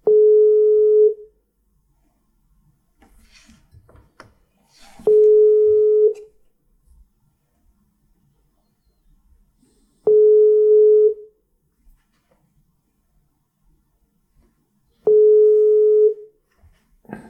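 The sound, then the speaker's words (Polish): Telephone tones as a call is placed repeat: a steady mid-pitched beep about a second long sounds four times at regular five-second intervals, loud and clear, with faint clicks and rustling between them and no talking. “Dobrze dzwonisz?”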